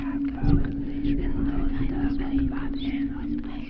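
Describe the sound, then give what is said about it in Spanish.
Eerie whispering from the back seat of a car, breathy and unintelligible, running continuously over a steady low engine-like hum, with no clear spoken words. “Lo oía susurrar en la parte de atrás.”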